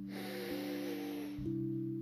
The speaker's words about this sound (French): Inspirez par le nez